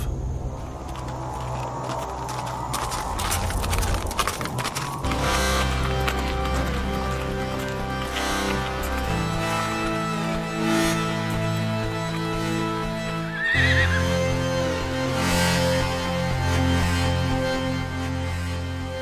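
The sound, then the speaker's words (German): Horse hooves clip-clop in a steady trotting rhythm as an injured man rides the horse back to the village with a companion, heard over a continuous, sustained musical backdrop that shifts chords several times; no clear whinny stands out. “Der verletzte Paul setzte sich auf das Pferd Gründners und gemeinsam machten sie sich auf den Weg zurück zum Dorf.”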